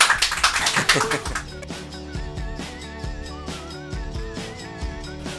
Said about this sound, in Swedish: Applåder från soffan.